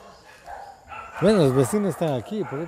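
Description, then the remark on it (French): A dog from a house barks, heard in a 7-hectare forest in Ecuador: a quick run of five or six loud, yelping barks with rising and falling pitch, following a second or so of quiet background ambience. “Il est facile de se perdre dans les 7 hectares de la forêt de marteillo Pourtant, il est commun d'y écouter les sons de la civilisation, une avionnette de l'aéroport de Chelmera tout proche, ou le chien d'une maison.”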